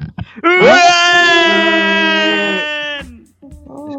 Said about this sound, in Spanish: Y hasta aquí la agenda de Neo y ahora por favor a todos, quiero un fuerte grito porque va a ser el último del año.